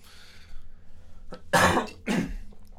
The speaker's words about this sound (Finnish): Kovasti se yskii. Pitää laittaa sitten äänikäppyrät pienemmälle.